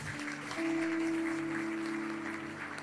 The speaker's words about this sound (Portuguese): Aplauda ao Senhor bem forte.